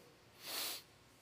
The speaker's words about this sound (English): Okay, and I want you to take a big breath and, and sniff in with your nose.